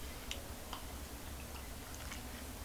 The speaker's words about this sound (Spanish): Pero para hacerlo, primero necesito un buen sorbito amargo y siempre, siempre necesario.